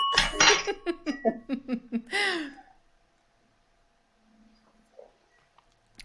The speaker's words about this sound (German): Ah, das ist sehr lustig, das hört man, glaube ich, auch im Podcast, dass du äh, den Sektflaschenlöffel mitgenommen hast und damit immer an dein Sektglas anstößt.